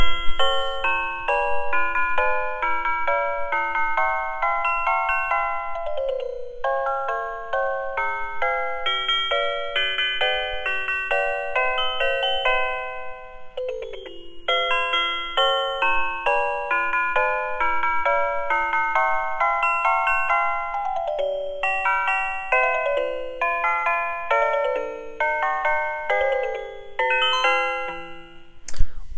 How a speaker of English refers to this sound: I think I'm going to play that wonderful Christmas music one more time